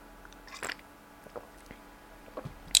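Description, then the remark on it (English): Someone quietly sips and swallows water after coughing, with a few soft wet mouth clicks and gulps spread across a few seconds and a slightly sharper smack at the end. “had to take a sip of water.”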